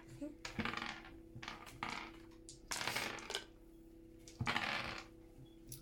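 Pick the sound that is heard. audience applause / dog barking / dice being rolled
dice being rolled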